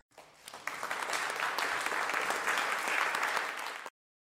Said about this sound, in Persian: صدای دست لطفا صدای دست لطفا